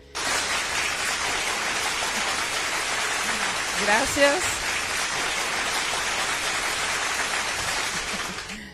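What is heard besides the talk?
audience applause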